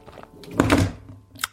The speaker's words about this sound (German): Also ist mein Handy runtergefallen.